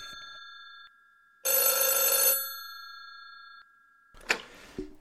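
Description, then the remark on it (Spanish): An old-style telephone bell rings in one loud, jangling burst, its metallic tone lingering and fading before a clatter, like the receiver being picked up. No one speaks. “Pues mira, llaman al teléfono, vaya, justamente ahora que estábamos terminando.”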